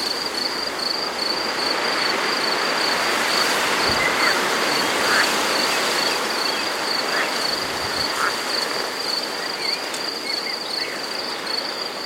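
A steady, high-pitched drone of crickets chirping continuously throughout, dense and unbroken, with a few faint brief chirps and soft rustles scattered over the insect chorus.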